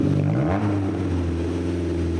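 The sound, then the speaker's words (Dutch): A sports car's four-cylinder engine revs up briefly, then holds a steady, loud droning hum, with no voices over it. “En dit is nog maar de viercilinder.”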